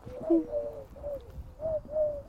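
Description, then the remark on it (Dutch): A Eurasian collared dove coos in a steady, repeated three-note phrase, soft hollow hoots around a mid-low pitch, clear over a faint background murmur. “En um, eh, ehm, Turk mooi dat vlekje in de nek.”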